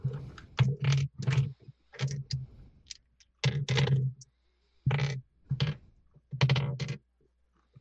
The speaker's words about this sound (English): Okay. Your dice are made of like pure titanium or something. They're so loud. It's the wood. Um, I'll get something to roll them on. Um, I think it's just the right amount of loud. It's it's perfect. I love it.